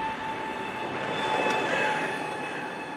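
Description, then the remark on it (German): A steady, high-pitched whine from an electric car sits as thin tonal lines above a broad, even rumble of vehicle running noise, holding constant throughout with no voices. “Tonale störende Geräuschkomponenten sind so etwas, was man sich landläufig als Pfeifen vorstellen kann, so Pfeifgeräusche.”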